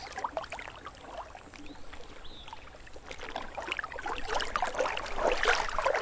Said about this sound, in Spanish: Un día soleado, mientras Aruki navegaba plácidamente en su bote, disfrutando de la paz que el lago le ofrecía, escuchando el murmullo del agua, en esa paz y tranquilidad.